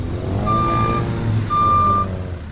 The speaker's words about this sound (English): On a sunny day in Atlanta's Sweet Auburn neighborhood, a huge truck hauls dirt from a construction site.